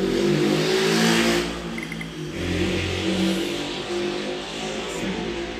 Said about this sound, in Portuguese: passa um carro na rua, é assim mesmo.